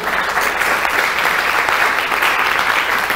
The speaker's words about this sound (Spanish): Dele un aplauso al Señor por eso, por favor.